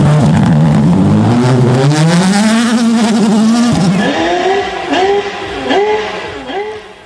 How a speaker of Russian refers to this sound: Хотя можно догадаться по прерыванию звука, когда машина взлетает на трамплине, что это ралли. В данном случае это фордовский